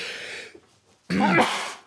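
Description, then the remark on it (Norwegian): A loud sneeze: a breathy, hissing build-up, a brief pause, then a sharp, voiced burst that trails off. No one speaks. “Prosit. Eh, nys er ikke tegn på korona. Men du skal fortsatt nyse inn i albuen din.”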